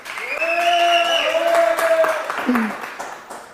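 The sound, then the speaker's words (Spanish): An audience applauds steadily for a few seconds, a dense patter of clapping, while a voice calls out over it with a long drawn-out sound. “Denme un aplauso, por favor, allá en casa, eso.”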